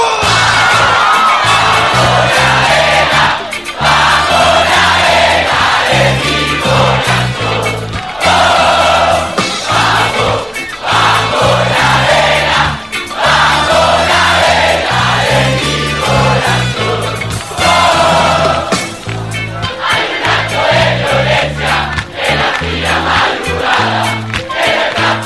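A loud live rock concert crowd cheering, shouting and singing along without a break, over a pounding band with heavy rhythmic bass, sustained for the whole stretch. Recorded in summer 2002 at the presentation of the band's first album at Parque Rodó, a green space in the heart of Montevideo.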